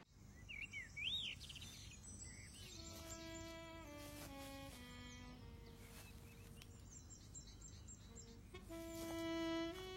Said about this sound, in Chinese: 那儿有鸟叫呀！ 哇，你能听见啊？